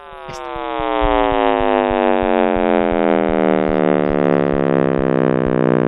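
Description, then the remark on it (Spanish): A simulated sound of the universe: a loud, continuous buzzing drone rich in overtones, its pitch gliding slowly downward, with a steady low pulsing beat running underneath and no voices. “Y no, eso no lo hemos podido escuchar porque es muy grande, pero lo podemos simular. Y la simulación es esta.”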